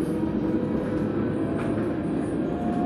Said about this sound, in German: Ich hoffe, ich bin jetzt noch zu hören, trotz S-Bahn-Geräuschen. ich gehe mal ein bisschen dichter dran. Äh, ich telefoniere ja eh öfter mal rücksichtslos laut in der S-Bahn, was soll's.